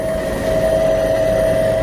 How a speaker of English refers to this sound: We take off in a light rain. The helicopter will eventually climb to 3,000 feet, high enough, I'm told, to avoid enemy bullets.